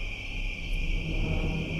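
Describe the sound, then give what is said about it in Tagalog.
Crickets chirp in a steady, continuous high-pitched trill, with a soft low rumble of nighttime ambience underneath. The sound stays even throughout, with no voices. “Alam kong malalim na ang gabi dahil naririnig ko ang mga kuliglig na humuhuni.”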